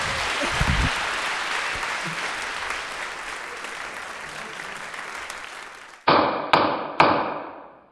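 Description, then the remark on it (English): A crowd claps steadily for about six seconds, the applause slowly thinning, then it cuts out and three sharp, ringing wooden knocks follow in quick succession. “Thanks so much to the litigants for joining us on stage and sharing their cases with us.”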